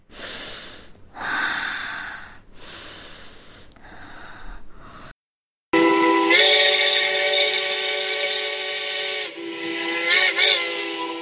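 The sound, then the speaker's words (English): A few heavy, breathy puffs give way to a brief pause, then a loud, sustained steam locomotive whistle blows for several seconds, wavering slightly near the end. “Whistled the little engine, and without looking back, he headed right into the dark tunnel steamer!”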